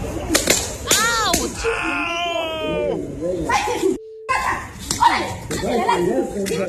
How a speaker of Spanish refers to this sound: escucha estas cachetadas. Sí.